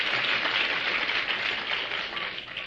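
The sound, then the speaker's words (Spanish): An audience, acting as judges, applauds steadily for a young woman who has just sung, a dense wash of many hands clapping at once that holds at an even level from start to finish, with no voices standing out. “Tu aplauso para ella.”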